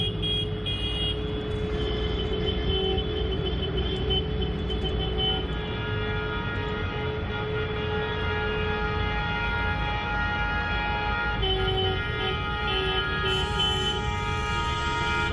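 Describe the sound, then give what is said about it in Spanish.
Tractor horns honk continuously at dusk as protesting farmers drive their tractors along Calle de La Vega in central Haro, La Rioja, several overlapping steady tones sounding together over a low rumble of engines, loud and sustained throughout with no one speaking. “Ahí estaban esas bocinas sonando.”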